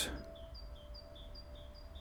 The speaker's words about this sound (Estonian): ja saab teha akna lahti, nii et linnulaul kostab tuppa.